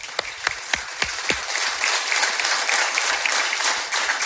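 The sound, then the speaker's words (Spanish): A crowd bursts into applause, a few sharp individual claps at first quickly swelling into a steady, dense wash of clapping that holds at full strength to the end. “aplauso para ellos.”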